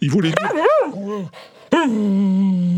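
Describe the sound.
A dog vocalizes up close, a quick run of yelps and whining cries with swooping pitch, followed by a brief pause and then a long, steady howl-like note.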